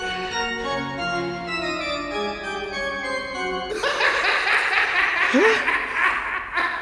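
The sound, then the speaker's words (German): A wheezy, pipe-like tone from an unruly organ pipe being practised on stutters up and down in rapid bursts, mimicking a laugh, then shifts into a brighter, noisier chorus of reedy squeals toward the end. “Jetzt lacht sie mich auch noch aus.”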